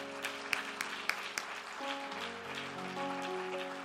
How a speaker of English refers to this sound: If you love your pastor, a man of faith, getting up here and speaking a word of faith, why don't you clap your hands if you love your pastor right now?